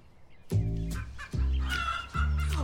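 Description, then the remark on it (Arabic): Chickens belonging to the neighbour Jawaher, found stripped entirely of their feathers, cluck and squawk in three loud bursts spaced roughly a second apart, each call harsh and sustained, with no one talking. “انظر انظر يا جحا ماذا فعلوا بدجاجاتي الحبيبات كان مشهدا مضحكا بحق فجميع دجاجات جواهر كن عاريات تماما من الريش”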